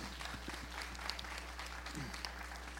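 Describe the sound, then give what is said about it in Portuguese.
A crowd claps steadily in dense, continuous applause to the Lord after a testimony, with a few faint voices mixed in beneath it. “Você pode aplaudir ao Senhor por isso?”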